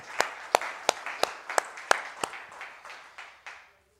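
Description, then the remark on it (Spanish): An audience claps in steady unison, about three sharp beats per second over a softer wash of scattered clapping, with no talking, before the applause fades out. “Bueno, denle un aplauso a ese Dios maravilloso.”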